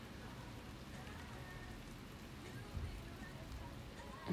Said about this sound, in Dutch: En het begint heel hard te regenen. Ik hoor het gewoon deze kant op komen.